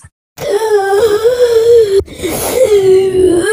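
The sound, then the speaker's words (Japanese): A strained, wavering voiced tone made while breathing in, like speaking while inhaling, an eerie moan or wheeze made as a sound effect. It holds one fairly steady pitch, breaks off briefly midway with a breathy rasp, then resumes. “吸いながら喋ってる感じそう。吸いながら、吸いながら音にするっていうか、より音、音という感じにして、で、それを混ぜると、うん。”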